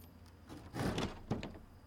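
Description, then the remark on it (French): Heavy church doors, unlocked with a master key, swing open with a broad, scraping rush of sound, followed by a short solid knock as they settle, moderately loud, with no voices. “utilisa un passe-partout et ouvrit les lourdes portes de l'église.”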